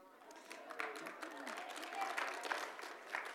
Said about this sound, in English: It's hilarious that you're clapping for a waste line story, but it's true.